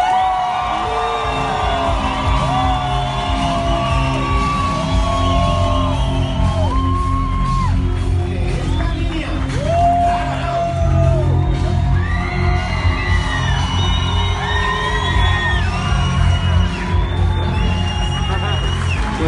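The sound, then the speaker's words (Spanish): An audience roars nonstop, with whoops and yells rising over heavy stomping thuds and cheering and applause that keeps building for the whole stretch. “A mí me gustaría que cuando mencione esto, si les mueve el piso, como dicen por ahí, zapatiemos, gritemos y aplaudamos.”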